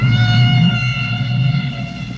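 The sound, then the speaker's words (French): A sustained whale song tone with steady, evenly spaced harmonics held over a deep low rumble, loud and continuous for a couple of seconds with no speech. “Et dans les écouteurs, on entend par exemple ce chant, ce chant des baleines.”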